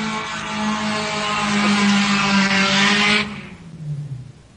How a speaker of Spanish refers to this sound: ¿Se escuchó eso? Sí, se escuchó mucho. Creo que era un vehículo. Yo también creo eso.